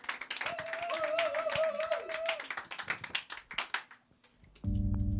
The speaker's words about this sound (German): Also, da geht doch eigentlich noch mehr vom Applaus, oder?